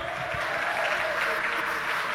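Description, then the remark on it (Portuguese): An audience claps steadily, a dense, continuous wash of many hands applauding at an even, moderately loud level for the whole stretch, with no voices standing out, giving a round of applause for a candidate being introduced. “Cauã, uma salva de palmas para o Cauã.”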